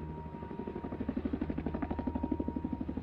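A helicopter passes overhead, its rotor beating in a steady rapid thump that grows more pronounced over the few seconds, with a low engine drone underneath and no voices.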